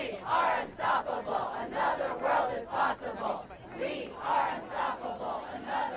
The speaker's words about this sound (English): We began our day in the nearby college town of Middlebury, where about 500 people gathered on the town green to demonstrate our demands for action.